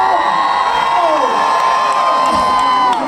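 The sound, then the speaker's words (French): A crowd of girls at a beatbox battle cheers and shouts loudly and continuously, high-pitched screams and whoops blending into a sustained roar with no pauses. “Je pense que rien les femmes peuvent faire plus de bruit que ça.”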